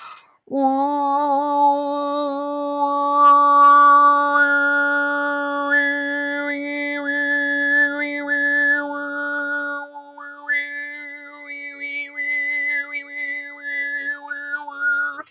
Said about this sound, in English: so you can filter the the harmonics there are inside the sound. Mm-hmm. So your basic sound is something like uh, uh, uh, very strange sound. Uh, but then when the tongue moves and you change the harmonics, wow, uh, a new whistle comes out.